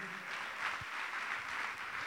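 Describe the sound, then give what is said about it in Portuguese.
An audience applauds the Lord steadily, with many hands clapping together into a dense, even wash of sound that holds at a moderate level for the whole two seconds. “Quem pode aplaudir o Senhor por isso é Ele.”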